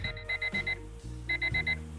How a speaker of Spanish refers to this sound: Le cuesta, le cuesta. Está ahí medio frito, sigue sonando el, el despertador.